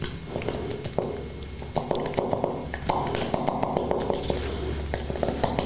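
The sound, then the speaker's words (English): A long plastic handle whips up raw eggs inside a man's butt in a rapid, steady flurry of light taps and wet clicks, continuous for several seconds with no voices. “Then he's taken a long plastic handle, and it appears that he's going to jam it in his hole and uh, try to make scrambled eggs inside of his butt.”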